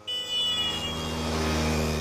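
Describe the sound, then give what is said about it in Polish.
A Vespa scooter engine hums steadily with a buzzy, mid-pitched drone and a faint high whine, holding a constant idle-like rhythm throughout, with no one speaking. “Wróćmy na moment do tematu wespy, czyli do stylowego skutera, którego dźwięk kojarzy nam się przeważnie pozytywnie.”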